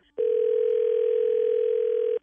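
A steady telephone dial tone hums at a single pitch for about two seconds while a call is placed to set up a three-way call, starting and stopping abruptly, loud and clear with no voices over it.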